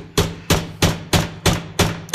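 Seven sharp, loud hammer blows on nails, made while building a birdhouse, land in a steady, even rhythm about a third of a second apart, each a bright crack with a short ringing tail. No voices are heard.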